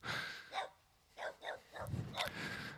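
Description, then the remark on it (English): A dog barks repeatedly, several sharp yaps spaced irregularly over a few seconds, faint against steady outdoor background noise in open countryside in Poland. “i am recording it walking with my little daughter in the polish countryside so the cars and the dogs you are uh, uh you can hear probably uh, are normal here it's not a recording studio it's just polish countryside”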